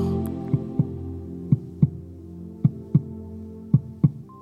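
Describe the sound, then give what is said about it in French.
A mother's heartbeat heard from inside the womb thumps muffled in steady paired beats, lub-dub, about four times, wrapped in a low, constant whooshing hum. No voices. “Et donc dans le ventre de notre maman se jouait la toute première musique qu'on a pu entendre. La musique si douce, si chaleureuse, si enveloppante de son battement de cœur.”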